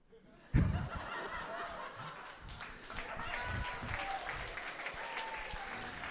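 A sudden burst of applause from a group for an answer, dense steady clapping that starts sharply and continues throughout, with some chuckles and laughter mixed in.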